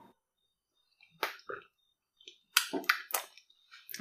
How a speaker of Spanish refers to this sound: No, no, no, no, estaba tomando pero es que es licuado, pero ya sé Todo se cuajó abajo.